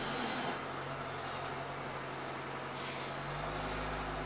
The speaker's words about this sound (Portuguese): Ó, o caminhão passando.